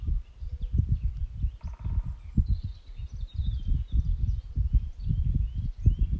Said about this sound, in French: Peut-être tendre l'oreille pour écouter le chant des oiseaux